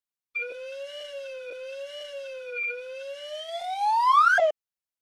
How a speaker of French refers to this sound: Mais comme les graphiques ne se traduisent pas bien en balado-diffusion, le son de ce sifflet coulissant vous donnera une idée de ce à quoi ressemblerait le graphique.